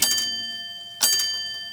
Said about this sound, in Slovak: Aj v londýnskom Piccadilly odbíjajú na stene hodiny.